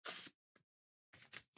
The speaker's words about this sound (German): er hat jetzt einfach die, eine der Seitenkanten gerissen, die Karte rausgezogen